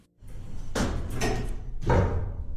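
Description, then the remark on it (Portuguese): Elevator doors slide open on the 11th floor with a steady mechanical rumble, marked by a few sharp clunks and swishes. The sound is fairly loud, and no one speaks. “As portas se abriram e eu fiquei perto do canto interno do elevador ao lado dos botões.”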